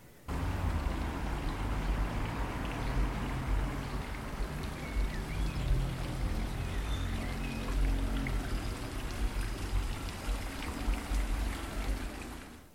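Steady rain patters on the metal bodywork of a car, a dense, continuous wash of drops tapping with a low rumble underneath and no voices.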